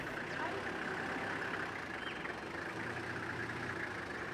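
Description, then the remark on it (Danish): A car engine roars under heavy throttle as the driver floors the accelerator while driving through Karamoja. The car bears a large green Adra logo on its side. The engine makes a loud, dense rumble that holds steady for the whole four seconds without pausing or clearly changing pitch. “Her i dette landskab, hvor chaufføren nu trykker sømmet ekstra i bund,”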